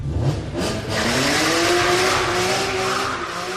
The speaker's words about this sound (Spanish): ¿Alguna vez te has parado a pensar a qué huele alguna de las muchas escenas de Fast and Furious, por ejemplo, cuando arrancan el coche y queman rueda?